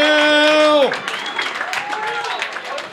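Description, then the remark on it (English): A sustained, buzzy tone cuts off after a second, followed by a steady burst of audience applause, dense clapping that continues to the end with a few faint whoops mixed in. “Clap your fucking hands for these two.”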